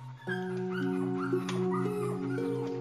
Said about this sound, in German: Dann fangen einige der Welpen an zu raufen. Dabei geht es ganz schön wild zu.